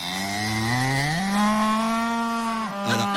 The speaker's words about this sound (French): Eh bien, je peux te dire qu'on a retrouvé la vache et elle a un petit message pour toi.